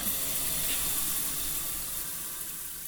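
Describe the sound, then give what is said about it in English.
A shower runs before a flotation therapy session, a constant hissing spray of water that stays even throughout, with no voices or other sounds. “You put in earplugs and take a shower.”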